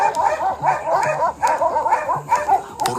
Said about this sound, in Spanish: los aullidos frenéticos despertaron a los vecinos.